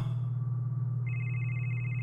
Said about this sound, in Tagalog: Ano yun? Nakarinig ako ng isang lumang ringtone mula sa isang cellphone. Tiningnan ko ang sarili kong cellphone kung may tumatawag sa akin pero nakapatay ito.